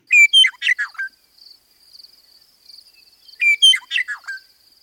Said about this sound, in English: Meadowlarks